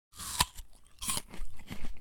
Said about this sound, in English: Sat at the kitchen table, munching on breakfast.